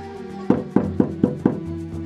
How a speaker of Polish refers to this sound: Ej, ej, nie pukajcie mi tu, stary. Ja mam gości dosyć. Na próżno u mnie będziecie o gościnę prosić.